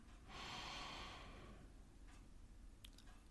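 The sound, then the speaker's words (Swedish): A long, deep breath drawn in through the nose as a calming breathing exercise, a soft airy rush lasting over a second, alone, followed by quiet with a faint click. “Alltså in genom näsan,”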